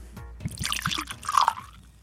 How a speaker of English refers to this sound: let me pour you some.